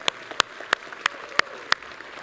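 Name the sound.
audience applauding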